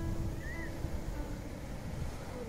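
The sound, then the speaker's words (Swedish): A steady low engine rumble with broad wind-like noise from a ferry crossing a strait on Gotland, Sweden, continuous and fairly loud with a faint whine drifting above it. “Jag tar färjan över sundet för att besöka en av dem”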